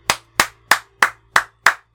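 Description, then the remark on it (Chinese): Six sharp, evenly spaced hand claps in a steady rhythm, each a crisp loud smack, from a single person applauding with no voices. “这个非常值得掌声的”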